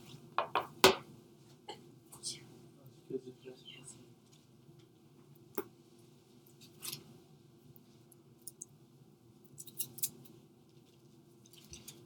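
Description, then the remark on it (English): Pages being turned in a Bible to Revelation 3:20, with papery rustles, flicks and soft taps coming in scattered bursts over a low background hum, fairly quiet. “Let me turn there.”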